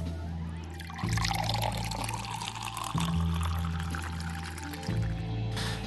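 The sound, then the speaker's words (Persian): Ice water pours steadily into a glass, a continuous splashing stream that swells in a few surges and briefly eases before resuming, with no voices present. “آقا یه لیوان آب یخ بهم میدین”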